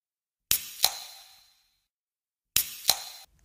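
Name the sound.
drink can being opened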